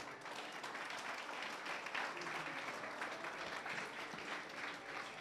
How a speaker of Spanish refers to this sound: Ok, gracias jóvenes. Son la, la embajada de seminario de varones. Eso es, gracias. Un aplauso, un aplauso.